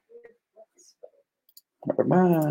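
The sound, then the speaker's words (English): A few soft, scattered mouse-button clicks with small quiet gaps between them, then a voice starts talking loudly. “I don't know why I forgot to click on that button.”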